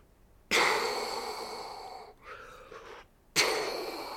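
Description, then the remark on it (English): A voice imitates an orca whale's blowhole exhale: two forceful, hissing breath blasts, the first long and sustained, separated by a softer breathy sound, loud with no talking. “and there was an entire pod of orca whales, probably you know a hundred feet offshore, and yeah, it was just oh, so magical.”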